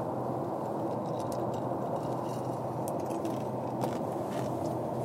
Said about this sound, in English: Excuse me, I'm chewing ice now. Please forgive me.